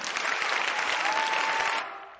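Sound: applause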